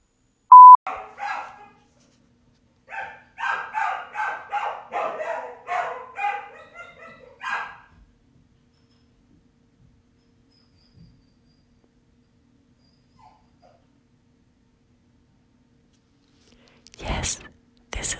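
A short electronic beep, then a dog shut in a bathroom barks and whimpers in a rapid run of yelps and whines for several seconds before falling quiet, with a brief noisy burst near the end.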